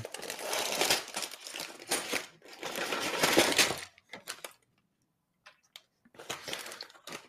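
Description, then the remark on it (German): Small hard black plastic LEGO pieces for a steam locomotive set, which all came in one bag, clatter and rattle in dense bursts as they are sorted by hand, with a quiet pause before another burst of clicking; fairly loud. “Und da werde ich erstmal ein bisschen sortieren müssen, weil ähm, alles in einer Tüte kam.”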